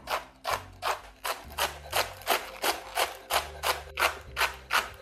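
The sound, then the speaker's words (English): A knife chops green onions on a cutting board in a steady, even rhythm, a dozen or so crisp strokes, the onions cut in half with the green parts scooped back down to the white parts, with soft low background music underneath. “I like to cut them in half and then like scoop the green part back down to the white part, so you're just not having to make as many cuts.”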